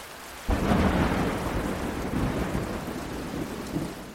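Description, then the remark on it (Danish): A sudden crack of thunder from a cumulonimbus storm cloud breaks in, then a deep rolling rumble continues under a steady roar of heavy rain, loud, with no voices. “De her skyer er nemlig fyldt med alt det vildeste vejr. Lyn og regn og nogle sindssygt kraftige vindstød.”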